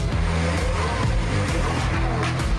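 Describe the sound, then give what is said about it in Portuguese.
The 700-horsepower, 6.5-litre longitudinal V12 engine of a Lamborghini Aventador roars loudly and continuously, its pitch climbing and dropping as it revs hard through several surges, with no one speaking. “Um motor longitudinal de 700 cavalos, 6.5 litros V12, empurra o Lamborghini Aventador de 0 a 100 em apenas 2.9 segundos para atingir a velocidade máxima de 370 km por hora.”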